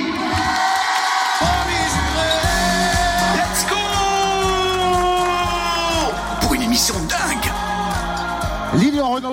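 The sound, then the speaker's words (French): A studio audience at a live public broadcast in the Fréquence Plus radio studio cheers loudly and steadily for about nine seconds, with shrill whoops and yells rising above a dense wash of clapping and crowd noise. “Faites du bruit!”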